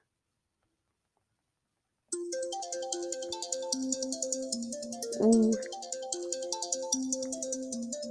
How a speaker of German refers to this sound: Hör auf, Timer.